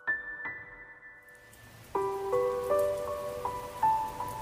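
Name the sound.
rain falling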